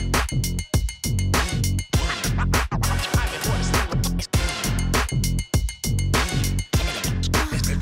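A hip-hop beat with dense, punchy drums and repeated sharp turntable scratches cutting rhythmically across the mix, loud and upfront with no voices.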